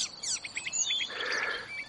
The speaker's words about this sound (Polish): Nazwa ludowa zaganiacza, przedrzeźniacz, znajduje więc pełne uzasadnienie. A jak gada zaganiacz? Tata bije, tata bije, bije, bije. Kto to widział, kto to widział, widział. Tata bije, bije.